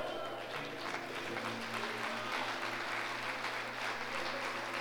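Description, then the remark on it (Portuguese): An audience at a Christian church service claps for the Lord steadily and continuously, a dense wash of many hands applauding at once, with a low sustained hum running beneath it throughout. “Dê um glória a Deus e aplauda o Senhor.”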